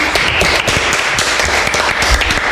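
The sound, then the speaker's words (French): Real hand clapping applause, not canned, welcoming a rock band: a dense, steady patter of many claps blending into a bright, continuous wash, fairly loud throughout with no talking over it. “ce sont des vrais applaudissements faits à la main”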